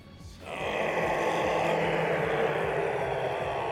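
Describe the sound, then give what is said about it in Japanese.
A huge, rumbling monster roar bursts in after a brief quiet and holds at full force, a harsh, growling bellow that fills the space without letting up, heard in an Emoklore TRPG scenario right after a shuttle crash. “アラート、悲鳴、鉄のひしゃげる音、すべてが制御不能で口頭向け、最後に聞こえるはずのない方向が辺りにとどろいて、”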